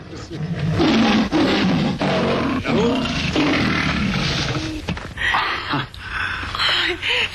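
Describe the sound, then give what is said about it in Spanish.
A lion, called the MGM lion, roars loudly as Samson faces it, deep rumbling growls rolling on for several seconds with brief breaks, ending in rougher, snarling bursts. “Este es Sansón enfrentándose con, un, eh, con el león de la metro directamente.”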